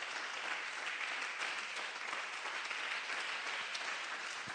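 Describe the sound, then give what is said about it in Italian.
Sustained applause from an audience for the Lord, a dense, even wash of many hands clapping at steady loudness throughout, with no voices standing out. “Un applauso al Signore.”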